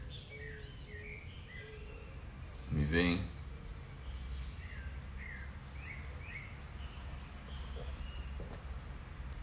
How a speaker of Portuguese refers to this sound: Muito bem, hoje eu contratei uma orquestra para tocar de fundo aqui, a orquestra dos passarinhos. Vocês vão ouvir aí pela manhã o canto dos passarinhos. Isso é uma maravilha, né?